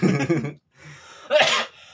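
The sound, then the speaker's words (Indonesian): A harsh cough bursts out after a short voiced sound and a breathy exhale, loud and abrupt against an otherwise quiet background. “oke lah kalau sekarang udah nggak batuk-batuk lagi”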